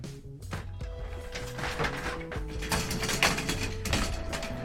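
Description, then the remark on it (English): Mechanical clicking and clunking as a chair that is far too tall has its height adjusted at the WFMU studio, a quick run of rattles and thumps over a steady background hum, with no talking. “This t- this chair is far too tall. Hold on.”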